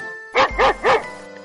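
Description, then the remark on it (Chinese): A big dog barks three times in a steady, evenly spaced sequence, each bark loud and full with a deep, resonant tone, followed by quiet. “艾米丽遇到了一只大狗。”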